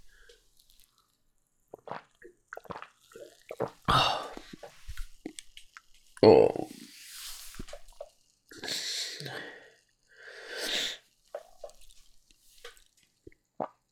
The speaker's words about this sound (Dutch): Ik ga eens een slokje nemen.